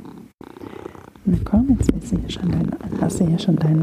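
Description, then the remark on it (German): A male domestic cat purrs, a steady low rumbling that continues under a person speaking softly throughout. “Ich hoffe, man hört wenigstens das Schnurren, denn das kann er ziemlich gut.”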